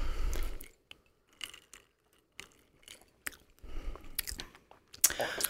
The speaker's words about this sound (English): and we're gonna try a sip now. Okay. So cheers. cheers.